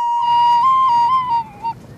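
A recorder (Blockflöte) plays a short, steady run of the German children's song Alle meine Entchen, a few clear, breathy high notes that step gently in pitch and then stop, with faint background noise.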